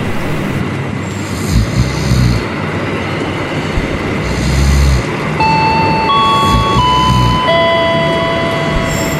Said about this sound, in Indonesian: Eh, astaga, kereta. Aduh, segala ketiduran lagi. Ah, untung aja nggak ketinggalan.